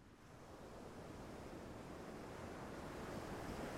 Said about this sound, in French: Alors je ne sais pas de quelle manière le corps oscille et danse sur ce son de vague. Mais vous pouvez focaliser votre attention sur la manière dont le corps inconsciemment réagit au son.